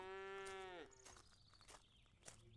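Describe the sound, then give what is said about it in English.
A starving cow on a farm lets out one drawn-out, feeble, groaning moo that sags in pitch and cuts off, followed by faint shuffling and scattered knocks. “But the only signs of life were the feeble groans of the starving cows.”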